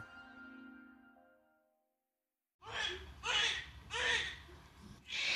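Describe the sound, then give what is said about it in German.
A healthy newborn baby's first cry after birth, in short, rhythmic wailing bursts, fairly loud, following a soft fading tone and a moment of silence. “Das erste Schreien eines gesunden Neugeborenen.”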